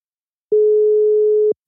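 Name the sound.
telephone ringing tone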